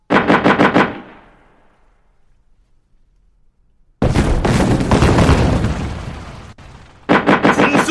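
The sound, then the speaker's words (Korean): Cannons fired from inside a fortress under siege, on the order of commander Kim Si-min, go off in a quick rhythmic volley of loud bursts, fall silent for a few seconds, then erupt in a sustained roaring barrage of booms before another rapid string of shots. “김시민의 명에 따라 성 안에서 북소리를 크게 울리고 포를 쏘아대니 적의 무리들이 혼비백산하여 인근의 여염집으로 도망쳤다.”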